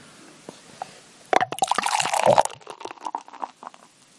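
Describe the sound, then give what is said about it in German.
Beer pours into a glass with a gurgling, splashing rush that swells suddenly, then fizzes and crackles as a yellow foam builds, fading into scattered bubbly pops. Fairly loud, no talking. “Ja, den Sound hatten wir auch schon länger ja, nicht mehr. Der war sehr vollmundig.”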